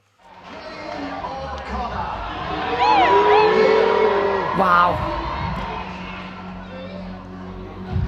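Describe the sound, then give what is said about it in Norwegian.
A crowd boos and shouts loudly in a room with an electric atmosphere, a steady roar with sharp individual yells rising and falling in the middle; one voice briefly exclaims over the din. The booing comes as a contestant is announced among the top three of a competition. “Fordi var, det var stemning i rommet, for å si det sånn. Elektrisk. elektrisk og eh, veldig buete.”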